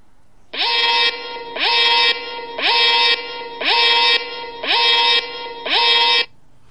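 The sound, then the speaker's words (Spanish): A phone's emergency alert tone, which overrides silent and Do Not Disturb settings, pulses loudly six times in a steady rhythm, each burst a harsh, rising, buzzy multi-tone blare, with no voices over it. “Y tenemos el sonido de alerta de emergencia.”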